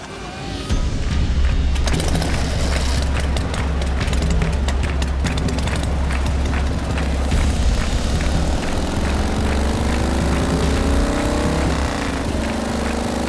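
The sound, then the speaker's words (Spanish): Several motorcycle engines rumble loudly and steadily together, their revving and throttle bursts overlapping, as a group of riders sets off together on their motorcycles toward the Plaza de Mayo during a street protest, with no one speaking. “Mariano y sus compañeros partieron todos juntos en sus motos rumbo a la plaza”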